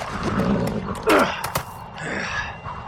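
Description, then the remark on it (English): A frightened, trembling horse carrying riders lets out a short, shrill whinny that slides downward, followed by a sharp snort, against a low rumbling background with no talking. “I feel you trembling against my back, and our horse is terrified of something.”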